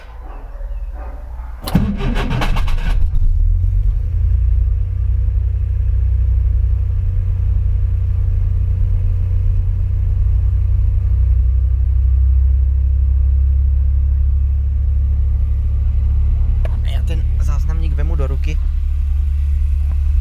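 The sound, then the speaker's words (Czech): A carburetted car engine that has not run for about 14 days cranks with a short burst of noise as the key is turned with the clutch pressed, then catches and settles into a steady, loud, low idling rumble that continues to the end, with a brief sound near the end; about 11 °C outside. “No tak jdeme startovat.”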